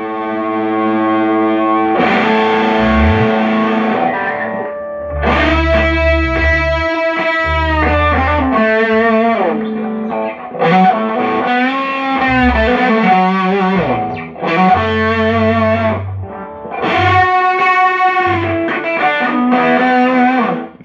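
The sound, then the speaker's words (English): A heavily fuzzed electric guitar plays loud, saturated chords and sustained notes with a thick, buzzing tone and low bass underneath, continuous with no talking. “Now, if you want more of like the fuzz, yeah, I could bring more of that in.”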